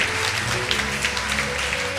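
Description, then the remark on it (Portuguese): An audience applauds God during worship, a dense wash of many hands clapping at a fairly even loudness, with a sustained musical tone and low hum beneath it. “Oh, nós aplaudimos o teu nome.”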